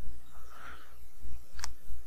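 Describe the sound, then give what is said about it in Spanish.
A single sharp computer mouse click lands near the end, crisp, with a faint low background hum and no talking, as someone clicks to start a process in a computer program. “Ok, damos clic y esperamos.”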